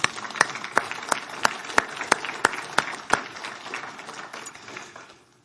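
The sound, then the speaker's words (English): A crowd at Abundant Life Church applauds together in praise of the Lord, a few sharp claps landing in a steady rhythm above the dense clatter, then the clapping thins and fades away over the last couple of seconds. “And I think the Lord deserves a clap of praise for that, don't you?”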